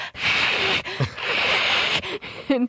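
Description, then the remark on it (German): Two cats hiss and growl at each other in long, breathy bursts, broken by brief pauses, with low growling tones slipping in between and a short, wavering growl at the end. “Ja, die Bist müssen sich natürlich wieder äh, genau hinter mir anfauchen und anknurren.”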